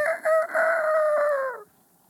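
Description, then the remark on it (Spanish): A voice imitates a chicken with one loud, drawn-out crowing call lasting about a second and a half, held steady before breaking off into quiet. “más probable que hicieran ruidos como gallinas, cosas así. No sé cómo hacen las gallinas, güey.”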